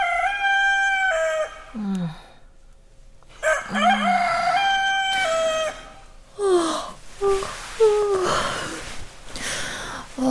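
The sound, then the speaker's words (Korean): A rooster crows loudly, two long drawn-out cock-a-doodle-doos separated by a short pause, followed by a run of choppier, ragged crowing calls with no one talking. “저놈의 닭은 잠도 없나.”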